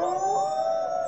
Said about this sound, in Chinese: 哎呀，怎么有狼在叫啊？